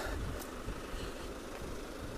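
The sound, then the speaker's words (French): A car engine, just started, runs with a low, steady idling rumble, fairly quiet, continuing unchanged for a couple of seconds with no voices over it. “Bref, je me perds un petit peu dans ce que je voulais dire, en même temps, parce qu'il y a une voiture démarrée.”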